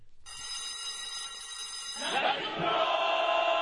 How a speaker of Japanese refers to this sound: ということで、これね、ゴングじゃないんですよ。これ後入れで非常ベルを、ベルをジーンってベルを入れたんですよ。ちょっと聞いてください。